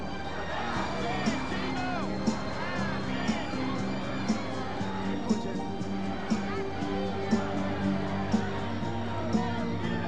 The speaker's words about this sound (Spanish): La gente le grita